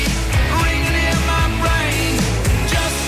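Loud, dense rock music plays with a steady driving beat, heavy bass and distorted guitars filling the mix, with no voices talking over it.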